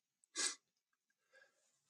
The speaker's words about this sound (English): i'm gonna sneeze